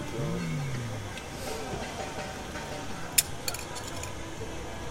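A small plastic camera lens cap drops with one sharp click, then bounces and rattles briefly a couple more times before settling, over a low steady room hum and a faint voice early on.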